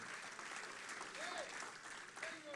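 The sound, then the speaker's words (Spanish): An audience applauds the King of Kings (God) in a steady, dense wash of clapping that holds for a few seconds, with a couple of brief rising vocal cries breaking through the noise. “Alguien le podía dar un aplauso al Rey de Reyes esta mañana porque yo creo que tu milagro, tu milagro está en creer.”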